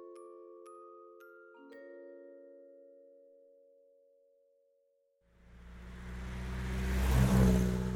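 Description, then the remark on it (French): A sustained musical chord fades into near silence, then an old car engine roars loud, revving and building as it accelerates away over the last few seconds; in 1945 a young couple drives the old car around the northeastern United States. “le jeune couple Warren achète une vieille voiture et part sillonner le nord-est des États-Unis”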